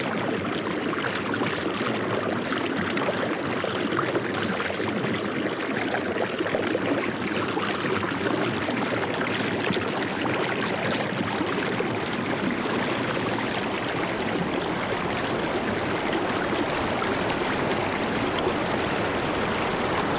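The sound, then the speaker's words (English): A steady, full-bodied rush of water cascading through the gorge at Blue Ledge, high in the Adirondack Mountains, pours continuously and loudly, with no pauses or voices, just a dense, churning roar from start to finish. “Annea Lockwood recorded the cascading waters found at the gorge at Blue Ledge, high in the Adirondack Mountains, as part of her work called A Sound Map of the Hudson River.”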